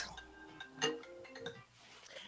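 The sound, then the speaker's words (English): The speaker's mobile phone ringtone plays a short electronic melody of bright, sustained tones that step between pitches, fairly quiet, lasting about two seconds. “my phone.”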